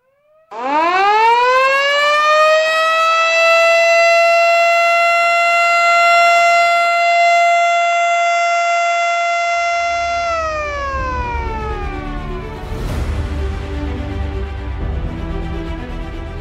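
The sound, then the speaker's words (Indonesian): A loud ceremonial siren, sounded by the President pressing the siren button at the opening of the Pamulang–Cinere–Raya Bogor toll road in Depok, West Java, Indonesia, winds up quickly to a long, steady wail that holds for about ten seconds, then slowly winds down beneath a burst of crowd noise and clatter. “mohon berkenan Bapak Presiden Jokowi untuk melakukan penekanan tombol sirine dan penanda tanganan prasasti”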